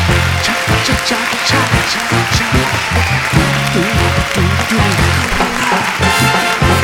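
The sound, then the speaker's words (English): A studio audience of the show Onward with the host cheers and applauds steadily throughout, a loud, dense wash of clapping mixed with whoops and shouting voices, with a rhythmic low-pitched backing underneath. “Beautiful crowd.”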